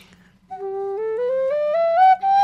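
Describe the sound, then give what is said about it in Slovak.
A wooden folk pipe (píšťala) plays a common ascending scale, about eight clear breathy notes stepping steadily upward at an even pace, fairly loud, with a faint low hum underneath. “Ale keď je to dobre spravená píšťala, tak ti to umožňuje.”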